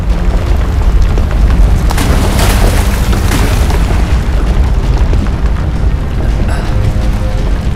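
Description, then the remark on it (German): A massive, sustained explosion as a mountain collapses in on itself, its blast wave pushing out over the sea; it roars with deep rumbling low end and crackling bursts, a continuous loud blast that swells and churns for several seconds. “Die Druckwelle wird uns weiter aufs Meer befördern. Der Berg fällt in sich zusammen.”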